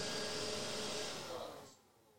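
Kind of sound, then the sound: household object, robot vacuum cleaner running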